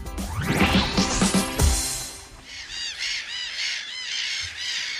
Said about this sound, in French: Quelques mouettes euh, rieuses pour vous accueillir. Ou des goélands argentés. Ou, des goélands argentés.